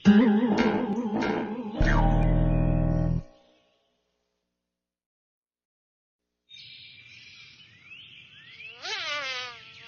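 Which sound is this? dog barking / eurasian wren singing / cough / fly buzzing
fly buzzing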